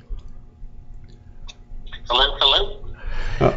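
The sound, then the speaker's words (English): A garbled phone line with poor reception: a caller, a polka Hall of Famer phoning in from a bad room, comes through choppy and distorted in short, unintelligible bursts, mixed with clicks and a low hum. “He's in a bad room. I guess the Hall of Fame ain't paying his phone bills.”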